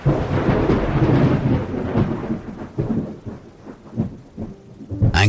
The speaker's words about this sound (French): Alors qu'il a près de 15 ans, lors de vacances à Belle-Rive, près de Genève, un orage d'une violence inouïe lui fait voir de près le phénomène de l'électricité.